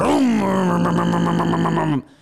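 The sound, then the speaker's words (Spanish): A man's voice imitates a V6 car engine turning over and revving as it is started: a rising, then steady buzzing drone with a rhythmic pulse, held loud for about two seconds before cutting off. “Que mi hermano prende el carro y era un V6.”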